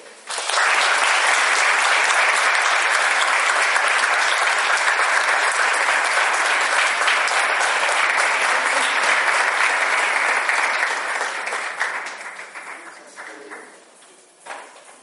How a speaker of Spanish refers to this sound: En ese sentido, yo le doy un gran aplauso